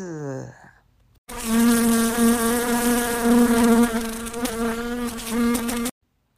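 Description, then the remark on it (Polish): A fly buzzes loud for about four and a half seconds, a steady droning hum that wavers slightly in pitch, after a brief faint descending tone and a pause. “Kto tak bzyczy koło krzaka? O, o, to mucha, która nie ubrała fraka.”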